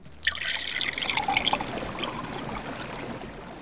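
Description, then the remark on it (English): Clear water springs up from a small hole dug in the ground with a stick, bubbling and gushing steadily like a small fountain, a continuous splashing trickle with bright fizzing spray and no voices. “beautiful, clear, shining, pure water, of fountain, sprang up from the earth.”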